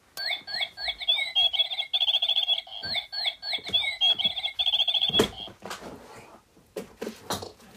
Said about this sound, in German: Und ihr könnt dann das Geschwitzer des Vogels hören.